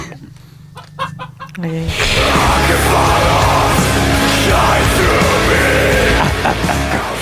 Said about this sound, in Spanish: Qué mejor sonido, por ejemplo, que ese gallo tratando de escapar en el templo satánico antes de ser decapitado